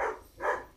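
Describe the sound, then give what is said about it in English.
Two quick, muffled barks from dogs in the background, faint, with a short gap between them and no one talking. “sorry, you can probably hear the dogs in the background, they're acting up.”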